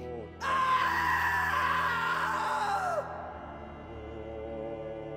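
A man lets out a single long, strained scream from outside, lasting a few seconds, its pitch sliding down as it cuts off, over a steady low background hum.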